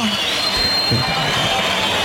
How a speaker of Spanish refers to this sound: Manzanares que recibe la ovación del público, ya están las, los pañuelos solicitando trofeo